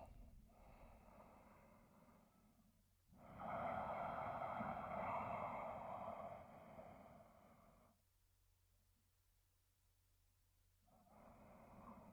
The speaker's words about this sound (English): what you've done by practicing the breath work. Is you've communicated with your body, you are looking for longer breaths, slower breathing.